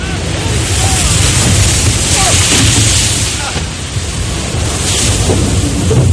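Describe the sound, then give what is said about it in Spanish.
A heavy wave crashes and surges across the deck of a frigate at Cape Horn, knocking the ship's surgeon down, amid a constant roar of wind and rushing water, loud, with no break for the full six seconds. “Una ola le derriba encubierta.”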